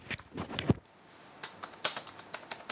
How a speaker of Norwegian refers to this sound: Fingrene hans danser over tastaturet.